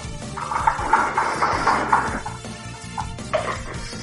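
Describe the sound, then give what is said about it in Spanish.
Sliding doors rumble and clatter shut, a long grinding roll lasting about two seconds followed by a shorter thud-like slide a moment later, with no voices. “Son puertas correr”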